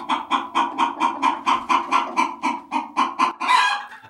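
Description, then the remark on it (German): A steady run of insistent clucking from Mexican chickens, about a dozen rapid pulses in a regular rhythm, with a slightly louder squawk near the end and no voices. “Ach richtig, die mexikanischen Hühner, die zwar noch immer keine goldenen Eier legen”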